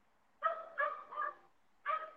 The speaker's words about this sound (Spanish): No es aquí, es, allá. es un perro. Es un perro, de hecho